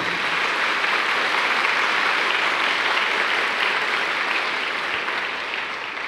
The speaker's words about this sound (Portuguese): Pode aplaudir.